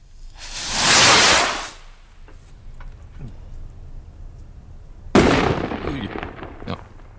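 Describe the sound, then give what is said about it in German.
Fireworks from a huge display put on by SRF: a loud rushing whoosh swells and fades, followed by scattered pops and crackles, then a sharp bang that trails off into a long crackling fizz. “Ähm, hat uns ein riesiges Feuerwerk angestellt, das lehnen wir schnell ab.”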